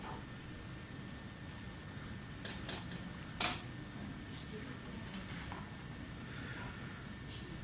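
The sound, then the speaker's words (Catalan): Hushed ambience of the reading room of the city's historical archive in Barcelona: a low, steady background hum with a few faint, brief creaks and clicks near the middle, like chairs shifting. No one speaks. “Aquest és el so de l'ambient que hi ha en la sala de consulta d'un dels arxius més importants que tenim a Barcelona, l'Arxiu Històric de la Ciutat.”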